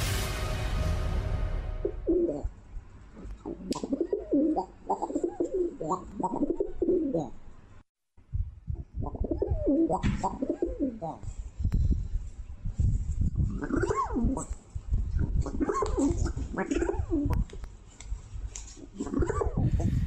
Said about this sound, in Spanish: Pues, ¿qué es lo que estamos escuchando ahí? Hoy, en nuestra historia sonora la iniciamos de esta manera. Si usted no le entendió al sonido, es un sonido de, pues, de una paloma, ¿no?